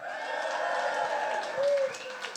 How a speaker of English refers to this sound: So a round of applause for the youngsters.